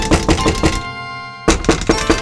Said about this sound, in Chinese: 突然呢，听到有敲门声。